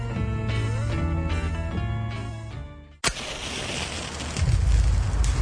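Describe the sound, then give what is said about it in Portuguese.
Soft tonal music fades out, then a sudden burst opens into a dense, crackling roar of a forest fire burning that swells louder with a deep rumble toward the end. No voices. “É o som de vidas em risco, de animais morrendo e de florestas inteiras destruídas.”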